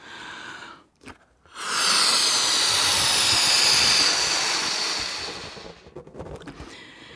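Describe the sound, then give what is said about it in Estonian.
Air rushes out of a balloon in a loud, steady, breathy hiss lasting about three seconds, then gradually thins and fades away. A brief softer burst of air comes just before it. “just nagu see õhupall siin, jumal puhus oma hingeõhu inimesse.”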